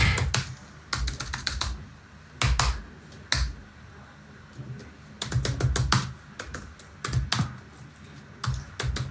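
Close-up clicking of keys on a computer keyboard, typed in quick irregular bursts with short pauses between them, no voices present.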